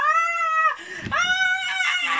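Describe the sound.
A voice imitates a boy's piercing scream: a loud, shrill, sustained wail that breaks off briefly, then rises again into a second long, strained shriek.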